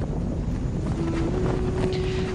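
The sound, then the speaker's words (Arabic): Steady, rushing wind blows continuously with no pauses, joined partway through by a faint, sustained low whistle or hum. No one speaks. “يأتي همسها مع الريح”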